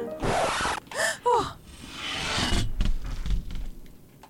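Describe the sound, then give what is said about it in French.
A guillotine blade drops: a harsh rush of noise and a couple of sharp gasps, then a long metallic slide ending in heavy, low thuds as the blade lands. “chaque fois, ça me brise le cœur euh, quand j'entends la guillotine qui tombe.”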